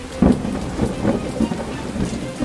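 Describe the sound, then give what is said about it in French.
Steady rain hisses throughout while deep, rolling thunder rumbles underneath, swelling in a few low surges. No one speaks. “La pluie se remet à tomber.”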